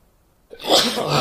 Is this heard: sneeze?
yes